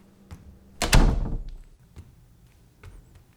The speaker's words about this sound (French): Claque la porte.